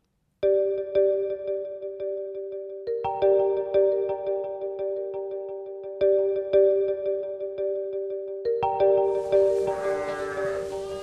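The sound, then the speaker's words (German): A bottle-raised goat bleats in a loud, drawn-out series of wavering, pulsing cries, ending in a harsher, raspier call. No one speaks. “Die Ziege habe ich auch in der Flasche aufgezogen”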